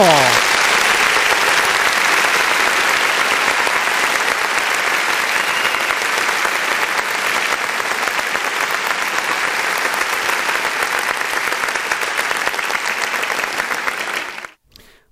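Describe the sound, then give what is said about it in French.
Sustained applause from a crowd, a dense steady clatter of many hands clapping for about fourteen seconds before it cuts off abruptly, for Björn Musson winning his third Framboise d'or for the best joke of the evening. No voices stand out. “En attendant, pour de Musson qui gagne sa troisième framboise d'or de la meilleure vanne de la soirée, applaudissements”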